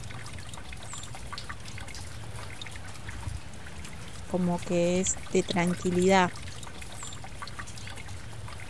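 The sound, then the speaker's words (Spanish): A steady, soft trickle of water as the damp soil of a vegetable garden is watered, running throughout at a moderate level, while a woman speaks briefly over it in the middle. “podés tener un día muy cargado y, y venís a la huerta y automáticamente siempre hay algo para hacer y te olvidas y te conectas con la tierra, sentir ese olor a tierra húmeda, regar,”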